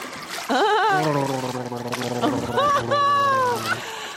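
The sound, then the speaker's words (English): A loud gargle of toilet water in the throat: a voiced, bubbling warble that runs almost continuously for about three seconds with wavering pitch, no clear words spoken. “I'm going to drink some of the water and gurgle it.”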